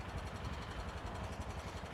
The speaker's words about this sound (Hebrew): כמובן בא טרקטור, התיישב לי על הראש, בסדר? והוא מאוד עסוק פה, יש פה איזה פח, הוא מסתכל בפניהם.